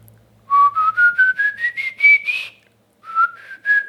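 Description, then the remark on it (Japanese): A person whistles a rising scale of short, clear notes, each a little higher than the last, then pauses briefly and whistles three more ascending notes. Fairly loud, with no talking. “でも口笛の低音か口笛でも低音は多分ある程度限界あると思う高音はね、うん、結構 風になっちゃうじゃん多分俺の低いのでこれ”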